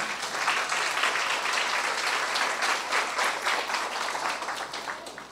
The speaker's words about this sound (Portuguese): Será que você pode aplaudir Jesus nessa manhã?